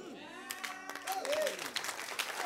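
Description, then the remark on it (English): An audience claps in scattered, uneven bursts, with sharp bright hand slaps rising over a murmur of voices and a few raised exclamations. “Now, no, no, no, no, don't clap yet.”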